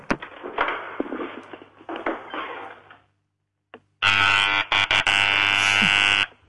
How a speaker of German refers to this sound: dass die Türklingel laut genug ist